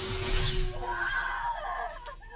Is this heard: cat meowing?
no